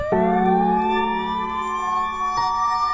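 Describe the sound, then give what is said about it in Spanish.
Sirens of several ministerial police patrol cars arriving and taking position at the entrance wail loudly, one long tone sweeping steadily upward with a brief catch partway through, with no voices. “En eso aparecieron varias patrullas de ministeriales y se apostaron en la entrada de la puerta.”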